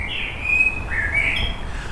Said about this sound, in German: Von den Vögeln, die singen jetzt abends auch schon wie im Frühling.